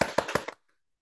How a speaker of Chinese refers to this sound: 再见，呀，鼓掌！